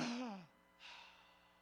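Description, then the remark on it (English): A man imitates the sudden gasp of breath of a dead man as life comes back into his body: a short voiced intake with falling pitch, a brief pause, then a soft breathy rush of air, fairly loud. “Oh, I, wouldn't it have been something to been in that room and hear the to hear that gasp of breath when it comes back into his body.”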